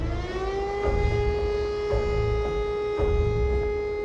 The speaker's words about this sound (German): Die Lage ist mega chaotisch und es ist sehr, sehr laut auf der Brücke. Alarmsignale, Funkverkehr mit SOS-Rufen, Mayday, Mayday, Mayday, Feuer, Mann über Bord, all das wird noch übertönt von panischen Schreien aus allen Richtungen.